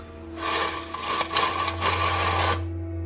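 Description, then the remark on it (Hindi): Something rolls or is dragged across a floor inside a dark, silent, deserted room, with a steady, gritty rumble for about two seconds and a few faint knocks along the way over a low background hum. “उसने पॉकेट से अपना सेल फोन निकाला और टॉर्च ऑन करने ही वाला था कि तभी उसको अंदर से कुछ सामान घसीटने की आवाज आई शायद फ्लोर पे कुछ रोल होने की आवाज़”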